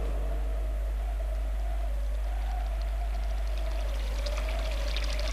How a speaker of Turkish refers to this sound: Şu ırmakta yıka ellerine oğuştura oğuştura.